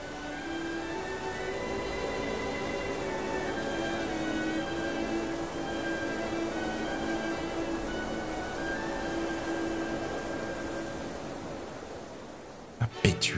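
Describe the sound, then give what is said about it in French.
A storm wind roars steadily through a window thrown wide open on a stormy night, with shifting whistling howls riding over a dense rushing noise, ending in a few sharp knocks. “Tout en parlant ainsi, et ayant soigneusement abrité sa lampe, il se précipita vers une des fenêtres. et l'ouvrit toute grande dans la tempête.”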